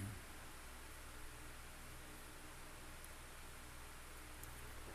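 A steady, quiet whoosh of an electric fan running at home on a hot day, an even low hiss with no change in level and no voices.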